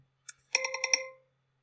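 A phone alarm ringtone plays alone, reminding its owner to start thinking about going to bed: one quick electronic blip, then a short burst of rapidly pulsing, bright chime notes that rings out briefly and fades. It is fairly quiet.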